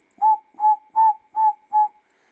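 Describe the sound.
A person whistles an imitation of a tinker barbet's call: five short, evenly spaced hollow notes at a steady mid pitch, fairly loud, with no speech.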